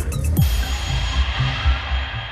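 A single loud gong strike on a quiz show rings out, its deep, wavering hum and bright shimmer sustaining and slowly fading over the next couple of seconds, with no talking.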